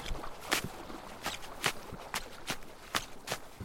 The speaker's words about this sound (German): Mit meinen Schneeschuhen stampfe ich eine kleine Fläche fürs Zelt flach.